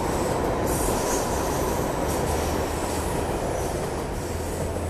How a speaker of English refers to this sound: There goes the train.